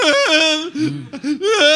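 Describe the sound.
A voice imitates ugly crying, producing wavering, high-pitched whimpering wails that rise and fall in a few sobbing bursts, fairly loud, with no other talking.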